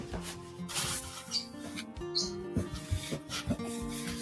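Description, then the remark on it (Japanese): Busy rustling and scraping as things are packed into a cardboard box, coming in irregular bursts over soft, steady background music. “ガサガサうるさくてすみません段ボールに詰めてます。”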